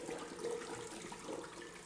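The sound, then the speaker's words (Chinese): Cold water runs steadily from a tap turned on in a washroom, a soft, continuous rushing flow that stays even throughout the short clip, with no voices. “走进水房，扭开水龙头，冷冷的水潺潺流淌着。”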